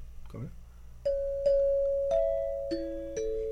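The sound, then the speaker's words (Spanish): Five xylophone notes struck one after another at an unhurried pace, each ringing out clearly at a few different pitches, following a brief burst of voice at the start. “Ese es el xilófono, exactamente.”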